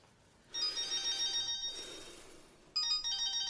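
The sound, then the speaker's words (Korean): A mobile phone ringtone for an incoming call from an unknown number, from the magazine Monthly New Taste, plays in two bursts of bright, high-pitched melodic tones, the second starting sharply after a short lull; no one speaks. “전화 왔다.”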